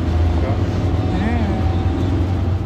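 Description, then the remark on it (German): A constant low engine rumble and road noise fill the air while riding into Oaxaca, Mexico, through city traffic in a minibus with broken air conditioning and all windows open, with faint voices and horn-like tones passing briefly. “Es war so ein Kleinbus und ähm, alle Fenster waren offen.”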